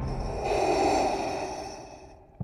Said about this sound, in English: Somebody's got a breathing apparatus.